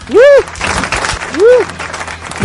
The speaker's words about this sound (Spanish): de, repente la gente se deja de aplaudir así instantáneamente, güey. Son muy obedientes.